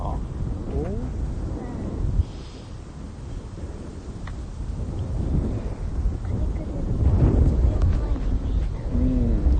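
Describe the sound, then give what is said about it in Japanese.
Strong wind buffets the microphone throughout, a steady low rumble with gusty surges that grow louder toward the end, while a voice talks over it. “風が強いんでねちょっと聞こえづらいかもしれないですけど”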